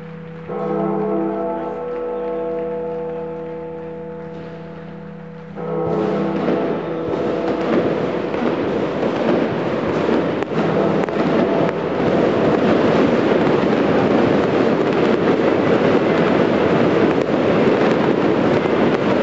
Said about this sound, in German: einem atemberaubenden Feuerwerk wurden die Teams empfangen und es schien die Wirkung nicht verfehlt zu haben.